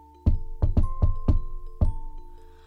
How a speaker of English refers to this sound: What neither of them expected was a polite knock on the door.